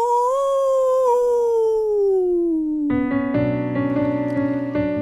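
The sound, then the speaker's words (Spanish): A single long wolf howl sound effect, loud, slides slowly downward in pitch for about three seconds before sustained musical chords take over. “El hombre lobo.”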